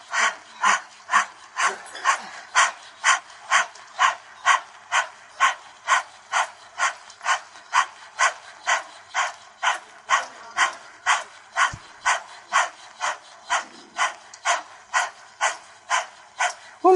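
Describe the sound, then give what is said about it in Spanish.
A long, steady run of forceful breathy exhalations, the 'heart sound' of a breathing exercise, meant to cool the heart. About two per second and about thirty in all, each an airy, hissing puff in an even rhythm with no talking. “Y hacemos el sonido de corazón, el ambiente está muy caliente, entonces conviene refrescar un poquito la temperatura del corazón, que ya es fuego, pero no, demasiado caliente no le beneficia, ¿sí?”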